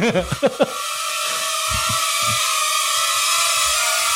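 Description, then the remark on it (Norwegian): A small drone hovers with a steady, high-pitched propeller buzz and airy hiss, its tone holding constant throughout. A brief burst of voice comes at the very start. “Nå kan vi spille dronetennis.”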